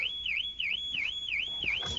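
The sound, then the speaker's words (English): A car alarm wails while a person sits in the car, its shrill tone swooping up and down in a fast, steady repeating cycle, loud and continuous with no one talking. “Oh dear, that is my alarm.”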